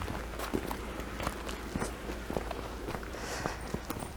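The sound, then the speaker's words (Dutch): Steady footsteps crunch along an outdoor path at a relaxed walking pace, each step a soft thud over a constant low background rumble, with a faint high chirp drifting in. “Dus wandelen, praten en vogels eh, spotten, dat is een combinatie, denk ik, Dat je alleen maar tegen een boom loopt.”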